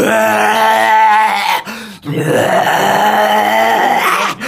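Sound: voice imitating loud snoring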